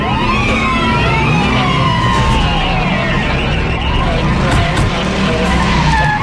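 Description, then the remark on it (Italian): A flying Hummer with a warp engine, disguised as a seven-seat Ford minivan, roars in and skids to a stop, tires screeching in long sweeping squeals over a heavy engine rumble. Loud throughout, with no talking. “Fino a quando, a bordo di un Hammer volante, munito di motore a curvatura e brillantemente travestito da polmino della Ford 7 posti, arriva eh.”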